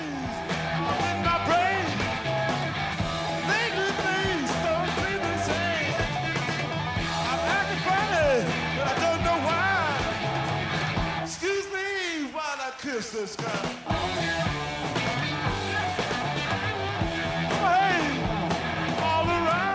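A loud, dense live rock recording with distorted electric guitar bending and wailing over drums and bass, playing continuously with a brief thinner break partway through.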